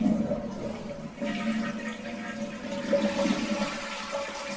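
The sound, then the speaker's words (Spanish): A toilet flushes in a bathroom in one continuous rushing gurgle of water, steady and fairly loud, swelling slightly after the first second and holding to the end, with no voices. “Estoy en el baño, bebé. Estoy mal del estómago.”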